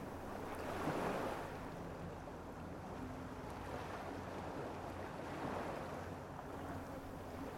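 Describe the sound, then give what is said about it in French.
Gentle waves lap and wash against a pebbly beach on a sunny day, with two soft swells rising and falling over a steady background hiss, unaccompanied by voices. “le clapotis des vagues est souverain.”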